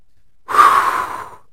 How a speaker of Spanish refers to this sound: Sí, sí, solo una respiración profunda, consciente, totalmente consciente